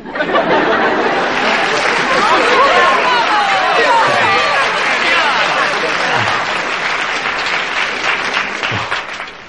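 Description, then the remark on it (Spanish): A large crowd fills the space with steady applause and a dense murmur of overlapping voices, loud and continuous throughout, with occasional shouts rising from the babble. “Escucha el latido del gentío.”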